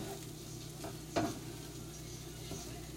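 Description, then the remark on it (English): Breakfast sizzles in a pan with a steady, low hiss, broken by a sharp scrape of a utensil stirring it, then a couple of softer scrapes. It's fairly quiet, with no one talking. “just making me some breakfast.”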